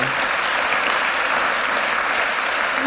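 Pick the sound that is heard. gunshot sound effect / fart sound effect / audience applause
audience applause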